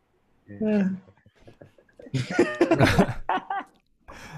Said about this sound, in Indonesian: Udah penyakitannya udah kelihatan batuk kan batuk.